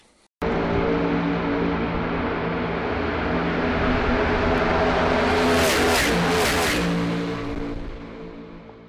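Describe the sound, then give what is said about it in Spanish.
A loud NASCAR Next Gen race car engine roars steadily for several seconds, swelling to a peak as it sweeps past, then fading slightly as it pulls away. “Y aquí les traemos una pruebita de cómo suena el nuevo bebé de NASCAR.”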